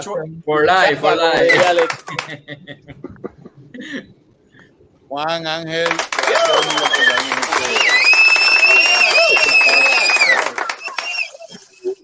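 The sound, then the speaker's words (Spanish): A man speaks briefly, then a crowd breaks into loud, steady applause and cheering that lasts several seconds, with shrill whistles riding over the clapping before it fades. “Tírate, el aplauso. Ah, el aplauso.”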